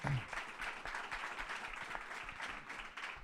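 Steady applause from an audience, many hands clapping in a dense, even patter that holds at a fairly constant loudness for a few seconds.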